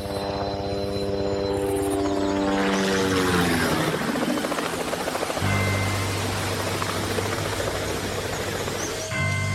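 A helicopter roars overhead as it flies over a river, its rotor pitch dropping as it passes, then settles into a steady, loud whirring hum as it comes down to land at a nuclear power plant. No voices.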